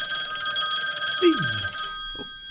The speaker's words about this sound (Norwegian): der ringer Steffen Lund. Jeg får nesten ta telefonen.